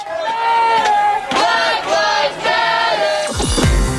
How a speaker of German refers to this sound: Draußen vor dem Weißen Haus wurde Trumps Nominierungsfeier von Protesten begleitet. Hunderte demonstrierten und riefen Black Lives Matter, schwarze Leben sind wichtig.